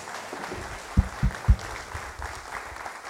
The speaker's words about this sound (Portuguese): Aplauda o nome do Senhor. Aplauda, aplauda, aplauda, aplauda. Aplauda o nome de Jesus.